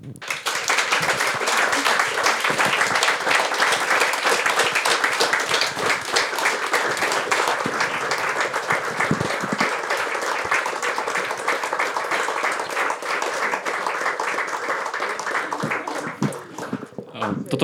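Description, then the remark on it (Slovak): Sustained audience applause for the event's guests, the longest so far, lasting about seventeen seconds, a dense, steady wash of many hands clapping at an even loudness before thinning slightly at the very end. “zatiaľ najdlhší potlesk, kedy naši hostia dostali, čo si, čo si pamätám.”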